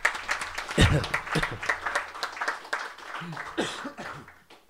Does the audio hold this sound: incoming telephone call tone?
no